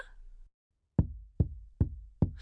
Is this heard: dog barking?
no